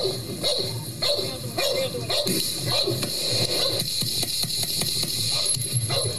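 Repeated dog barks and yips ring out over a steady mechanical hum, with muffled voices and clattering activity in the background.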